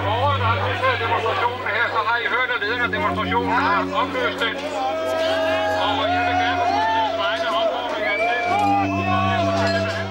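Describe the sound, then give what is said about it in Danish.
A loud, agitated crowd of demonstrators shouts and yells continuously, many voices overlapping, over a steady low droning hum, as they throw stones and bottles over a police fence toward a neo-Nazi headquarters after a protest. “Situationen eskalerer. Demonstranterne kaster sten og flasker ind over hegnet mod førerbunkeren nogle nazister kaster igen.”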